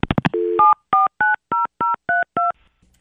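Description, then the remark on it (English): A few quick clicks, then a steady tone, followed by a run of seven evenly spaced telephone keypad beeps as a phone call is dialed, each a short two-pitch chirp, loud with no one speaking. “unless there's anything else, we're just going to go ahead and call her.”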